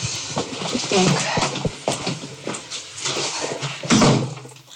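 A front door is opened and shut, with a few sharp knocks and rattles of the latch and frame over a steady background hiss, and faint voices.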